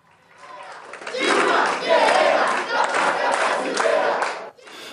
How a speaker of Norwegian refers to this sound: President Dilma Rousef slåss for landet vårt, roper disse støttespillerne.